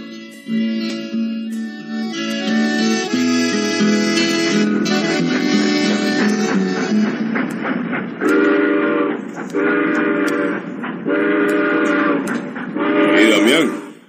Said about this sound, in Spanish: Viene un tren. ¿Cuál es ese tren a esta hora, hombre? Ellos, hombre, es el tren que sale de Managua a las 7 y 10.